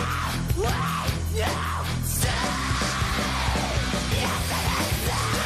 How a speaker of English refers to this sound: that's like a full on angry cougar scream.